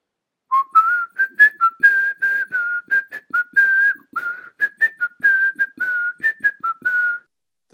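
A person whistles a lively jazz melody up close, a quick run of clear, short notes with brief pauses between phrases, with no talking or other sounds.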